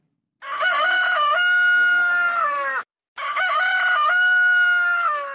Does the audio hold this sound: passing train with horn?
no